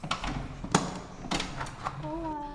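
A house door opens close by: a latch click and a couple of dull knocks, then a short faint creak against a low room hum.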